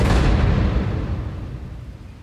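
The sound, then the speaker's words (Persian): A loud thunder crash bursts in at full strength during a storm with strong wind among trees, then rolls into a deep rumble that slowly fades over a couple of seconds, with no voices present. “برگا و شاخه های درخت به هم میخوردن باد شدیدی میوزید و صدای رد و برق بلندی شنیده میشد”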